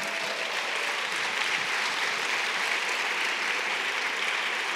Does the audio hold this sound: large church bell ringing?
no